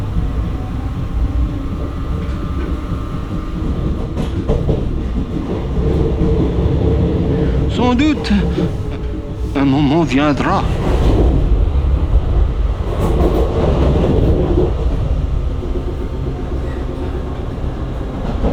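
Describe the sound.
A train rumbles steadily along the rails with a deep continuous roar, broken midway by brief metallic squeals from the wheels, while a voice speaks faintly over the noise.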